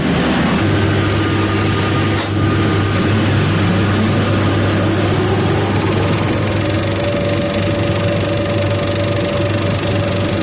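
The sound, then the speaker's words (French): A 35mm film projector runs steadily, a loud continuous mechanical whir with a low, constant hum and rattling motor noise that never lets up, with no voices. “Et euh, donc euh, montrez-nous un petit peu à quoi ressemble maintenant euh, une, un son de projecteur 35.”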